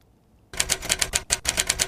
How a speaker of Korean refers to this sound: 이게 타자 소리입니다. 예, 예전에 그 타자기 소리 있죠. 예, 지금은 뭐 이 자판 소리지만 예전에 이 타자기 소리였죠.